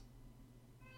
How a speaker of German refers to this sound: oh mein Gott! Oh mein Gott! Katze!